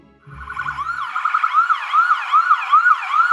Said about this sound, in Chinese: 是的，救护车来了。因为为了让老先生开心，彼得把桌上的菜通通都吃光了。但哪道菜是什么味道，他全然不知。一出餐厅，他就昏倒在人行道上了。